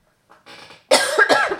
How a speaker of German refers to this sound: Jetzt musste ich einmal husten. Ach Gott. Kein Problem. Ich habe mich extra zusammengenommen, damit ich dir nicht ins Wort huste.